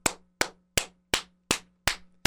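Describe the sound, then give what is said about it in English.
Seven sharp, smacking hand claps imitate buttocks clapping at a strip club, landing in a steady, even rhythm, loud, each one a crisp slap with a quick decay and nothing else around them. “They they clap, they applaud the dancers, and I turn around and this this ass clapping.”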